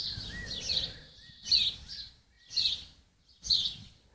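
Birdsong with four bright, high chirping phrases repeating about once per second, fairly quiet, with a faint low rumble of background noise and no voices.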